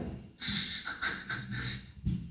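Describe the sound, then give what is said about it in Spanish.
Heavy, rapid panting breaths in a quick rhythmic series of airy huffs, fairly loud, with no talking. “Respirando fuerte ya”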